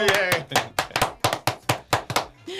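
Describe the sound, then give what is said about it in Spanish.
About ten sharp hand claps in a steady, even rhythm, sparse rather than a full crowd, welcoming two invited guests on a show about Afro-descendants, with a brief voice at the start and again at the very end. “Los recibimos con un fuerte aplauso.”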